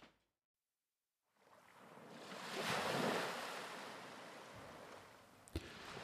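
Waves lap gently against a deserted, remote pier of a small coastal town, Crescent City, on a mild summer night: water washes in after a moment of silence, building into a soft swell of surf that lingers and slowly eases, with a brief knock near the end and no voices.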